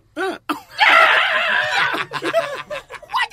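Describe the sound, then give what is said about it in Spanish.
A voice imitates a karate kiai: one loud, strained yell lasting about a second, with short vocal bursts before it and choppy voice sounds after. “Pero dicen que es eh, como dice, decía el sensei, tú cogiste karate que el ki te da más fuerza y parece que el grito le da más, más fuerza a ellos.”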